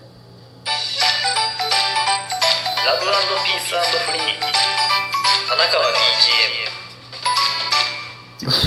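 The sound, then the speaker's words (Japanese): A bright, cheerful original jingle of chiming, bell-like tones and bouncy melody plays loud for about eight seconds, with a voice saying "love peace free" woven in, before cutting off abruptly. “オリジナルジングル完成！！”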